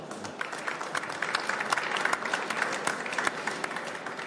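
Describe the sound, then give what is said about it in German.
Steady applause from an audience, a dense wash of many hands clapping continuously for several seconds with sharp individual claps popping out, fairly loud and even throughout, with no voices over it. The audience is welcoming a speaker at a GastroSwiss event in Basel. “Herzlichen Applaus,”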